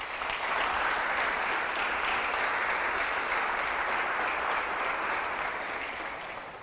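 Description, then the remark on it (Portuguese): An audience claps steadily for several seconds, a dense, even wash of many hands at a constant loud level that tapers slightly at the end, with no voices standing out. “Você podia dar um aplauso a ele por isso.”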